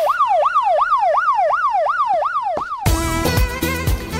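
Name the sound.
ambulance siren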